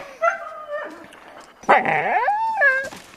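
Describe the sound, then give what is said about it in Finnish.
A husky-based wolfdog whimpers in high, drawn-out whines, then lets out a rising and falling yip before whining again, with no one talking. “mullahan on nämä niin kuin haski pohjasia nämä mun koirasudet tällä hetkellä, että...”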